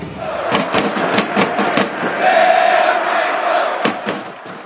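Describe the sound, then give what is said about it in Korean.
A large crowd of Korean Red Devils supporters inside Education City Stadium chants 'Daehan Minguk' loudly in unison throughout the match against Uruguay, with a rhythmic series of sharp claps or drum thumps punctuating the roaring, sustained voices. “경기 내내 목이 터져라 대한민국을 외치며 응원전에서는 오히려 상대를 압도했습니다.”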